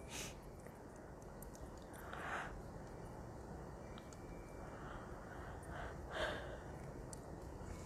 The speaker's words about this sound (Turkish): Evet başladı bile zaten hemen esnemeler.